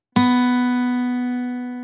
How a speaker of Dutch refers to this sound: Sla ik nu diezelfde snaar aan met de klankkast van de gitaar eronder, dan krijg je dit.